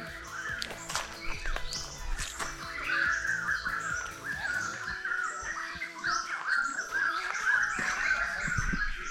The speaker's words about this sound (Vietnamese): chim nó hót líu lo líu lo luôn á